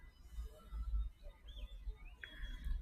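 A few faint, brief sparrow chirps sound, scattered over a steady low outdoor rumble, with no one talking.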